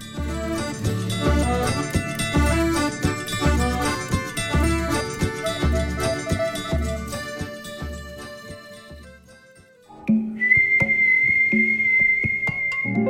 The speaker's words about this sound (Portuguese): Se você reconheceu esse assobio, então o episódio dessa semana com certeza é para você.